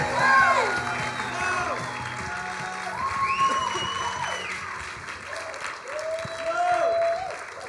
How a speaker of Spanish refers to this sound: Why don't we give Jesus a round of praise? How about that? ¿Por qué no le damos a Dios un fuerte aplauso?